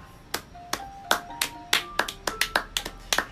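applause

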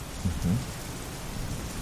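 rain with thunder

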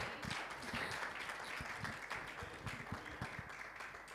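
audience applause

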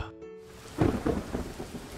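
heavy rain with thunder

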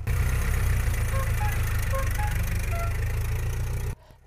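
vintage car engine idling

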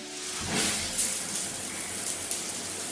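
shower water running

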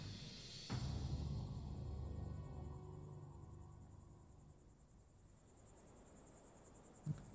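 crickets chirping at night

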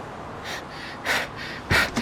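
heavy breathing

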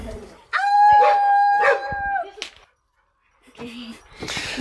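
dogs howling

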